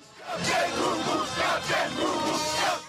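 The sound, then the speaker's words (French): A man, the new winner of a seagull-cry imitation contest at the Dunkirk carnival, imitates a seagull's cry: loud, shrill, repeated squawking calls in a steady series of four or five bursts, with crowd noise from a packed, cheering audience underneath. “C'est un cri un peu particulier, celui du tout nouveau vainqueur d'un concours insolite. Le cri de la mouette.”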